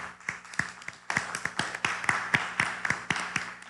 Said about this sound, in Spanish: Un fuerte aplauso hasta Estados Unidos.